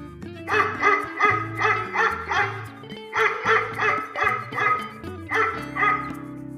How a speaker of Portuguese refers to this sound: Um cachorro.